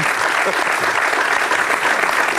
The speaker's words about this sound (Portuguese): António Costa é o vencedor do prémio Saltem Daí. Acho que devia haver palmas, não é?